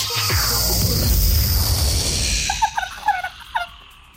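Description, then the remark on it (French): A loud wash of noise fades into a turkey's rapid gobbling, a burst of quick, wobbling calls near the end with no talking. “En direct sur Dynamique, une dinde.”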